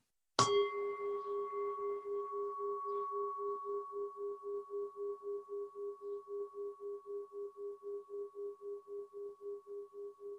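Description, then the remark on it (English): A single bell is struck once, giving a bright attack and then a long, pure ringing tone that slowly pulses and fades while sustaining throughout, heard alone without any voices. “And so the sound of this bell just now”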